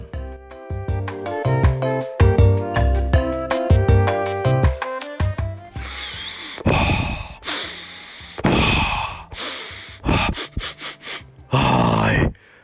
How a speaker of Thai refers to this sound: โอ้ยเฝึกหายใจอยู่ครับ